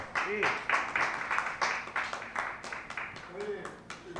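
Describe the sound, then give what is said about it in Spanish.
A crowd at a residence applauds one of its residents, a dense, steady crackle of many hands clapping throughout, with a couple of brief voices calling out over it. “En fin, pues yo pediría un gran aplauso por él porque se lo está, se lo está currando.”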